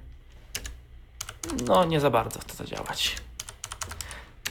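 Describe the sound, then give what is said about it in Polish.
Sharp clicks of keys being pressed on a mechanical keyboard as the Fn and 4 keys are pressed to switch it to Bluetooth, a scattered series of crisp taps, with a man talking briefly over the middle of it. “No to jest teraz na trybie, przełączę na przykład na Bluetootha, wcisnę FN, nawet no, było słychać dźwięk odłączania się sprzętu, wcisnę FN4”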